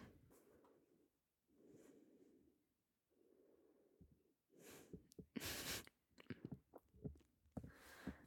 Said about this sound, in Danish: hvis du lige prøver at lukke øjnene, og øh, så tager du bare lige sådan en 3-4 dybe, dybe gode vejrtrækninger.